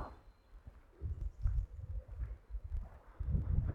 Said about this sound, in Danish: Håber ikke, at det suser for meget i, i mikrofonen, at det blæser lidt her.